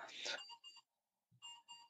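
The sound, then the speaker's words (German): An alarm clock, set to wake someone, rings in short electronic beeping bursts, pausing briefly before starting again, heard fairly faintly after a brief rustling noise. “Der Wecker ist an.”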